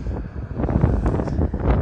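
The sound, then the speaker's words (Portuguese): Strong, rising headwind buffeting a microphone while cycling slowly uphill, a loud continuous low-frequency roar with gusty rumbling swells and no clear voices. “Só que o vento tá aumentando vento contra.”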